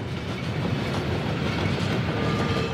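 A train rumbles steadily along the rails over the Hindenburgdamm to Sylt, crossing the sea, its wheels clattering in a continuous roar with no voices present.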